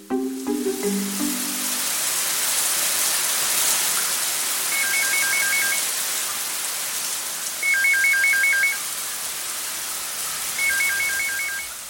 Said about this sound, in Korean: 자정을 넘긴 이 시간에 올 전화는 그 사람뿐. 샤워 중인데 받을까 말까.